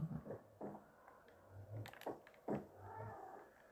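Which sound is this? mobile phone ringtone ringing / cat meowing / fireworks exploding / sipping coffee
cat meowing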